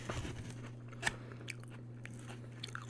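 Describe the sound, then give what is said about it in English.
Crunching as someone bites and chews a salad with crunchy croutons from a local restaurant, a sharp loud crunch near the middle with smaller crackles scattered around it, over a steady low electrical hum. “I think it's the hard boiled egg, but I really, really like the, the crunch of the croutons.”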